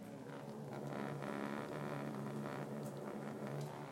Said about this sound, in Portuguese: Você pode escutar o barulho do fogo agora, uma participação especial.